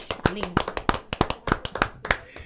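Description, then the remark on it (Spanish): A short round of applause: quick, sharp hand claps in a slightly uneven rhythm, about a dozen over a couple of seconds, with a faint voice briefly audible underneath near the start. “Un aplauso a, los leucocitos.”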